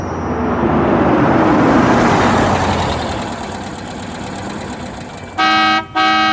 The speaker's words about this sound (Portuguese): Tem alguém buzinando lá fora. Deve ser o motorista que veio te buscar